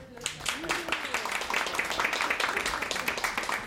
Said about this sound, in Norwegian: Vi klapper for Pamela Andersen. Ja, kan, ja, dere må gjerne alltid klappe for Pamela Andersen. Ja, det er viktig å klappe for Pamela.